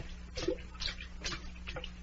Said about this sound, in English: Uh, try dipping it in the tea.